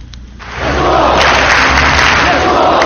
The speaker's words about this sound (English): They clapping and they, they call the name of Jesus, Yeshua. Yeshua. For 45 minutes, they just calling the name of Jesus. And those are people, my friend, a river of people. That's the cave church.